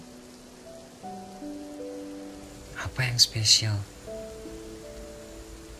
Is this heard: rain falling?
yes